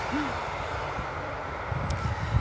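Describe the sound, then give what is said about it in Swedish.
A train passing by: a steady, broad rushing roar with low rumbling thuds that grow louder and more uneven toward the end. No one speaks. “Nu kommer tåget. Nu ska vi låta det passera.”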